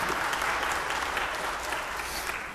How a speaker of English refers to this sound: You can clap, I think that'd be appropriate.